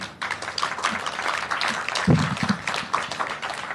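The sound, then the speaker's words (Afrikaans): An audience applauds steadily, a dense wash of many hands clapping at once that holds at a moderate, even level for several seconds with no voices over it. “Kom ons gee baie lekker 'n klap”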